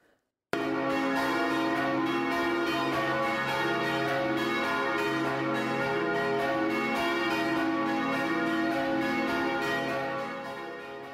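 Church bells in the village of Dolsko ring continuously and loudly, their overlapping tones sustaining a dense, steady peal from start to finish with no voices, fading slightly at the very end.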